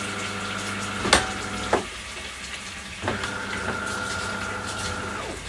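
Hot tap water runs steadily into a kitchen sink with a continuous rushing hiss, broken by a few sharp knocks and clunks, and a faint whistling tone creeps in partway through.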